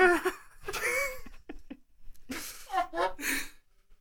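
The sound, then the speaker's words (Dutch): Loud spluttering after getting water up the nose: a few sharp, noisy snorts and coughing bursts mixed with breathy, laugh-like vocal sounds, coming in two clusters with a brief pause between. “God, ik water in mijn neus.”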